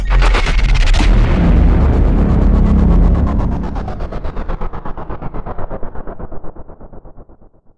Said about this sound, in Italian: Avete sentito la sigletta? Ecco, questa sigletta sta a significare che questa puntata è stata realizzata con Pod Cleaner.